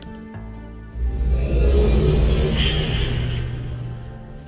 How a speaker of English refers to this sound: It's raining here at the cleft.